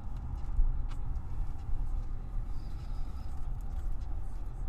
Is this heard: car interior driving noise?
yes